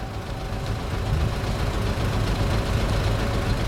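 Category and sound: vehicle, bus arriving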